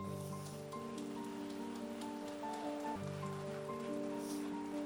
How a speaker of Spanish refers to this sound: Le damos un fuerte aplauso al Señor por su palabra.